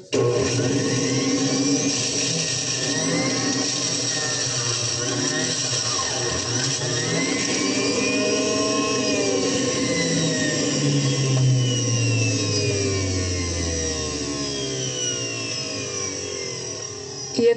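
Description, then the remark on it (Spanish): A blender runs continuously, whirring loudly as it purees potato and cabbage into juice, its motor pitch shifting and dropping as the contents churn, with no talking over it. “Este jugo de papa con repollo no es para el tratamiento agudo, como vimos con el bicarbonato, sino es para tratar de reforzar y reparar nuestros tejidos, sobre todo el estómago, tratarlo de reparar.”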